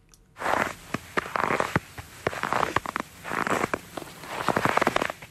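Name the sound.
footsteps walking through snow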